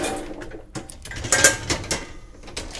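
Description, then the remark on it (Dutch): Dishes being unloaded from a dishwasher: a run of clinks and clatters of plates and cutlery, with one bright ringing knock in the middle, and no voices. “Maar aan de andere kant, voelt de vaatwasser dan lichter.”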